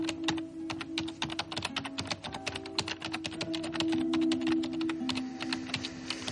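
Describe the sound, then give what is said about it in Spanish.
Steady, rapid typing on a computer keyboard by a journalist at a newsroom cubicle, with dense irregular key clicks running continuously over a low background hum. No one speaks. “El periodista, concentrado, sigue escribiendo y flexiona la mano.”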